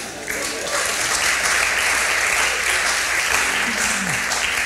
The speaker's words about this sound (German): kräftigen Applaus.